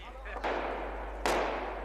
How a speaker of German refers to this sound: Plötzlich knallen Schüsse, wir haben keine Deckung, doch alles geht gut.